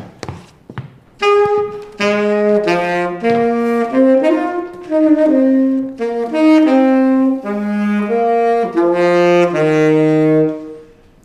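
A short instrumental separator jingle plays alone, a sustained reedy melody over a lower harmony line, loud, following a couple of brief taps at the start.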